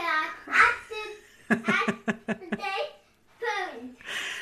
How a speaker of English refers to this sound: right behind me, I have my four year old who is watching Octonauts as I try to record something. So you may hear him in the background.